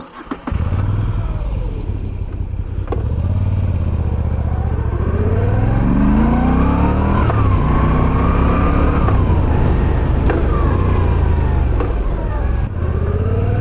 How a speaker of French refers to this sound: on part essayer la Moto Guzzi V9 Bobber.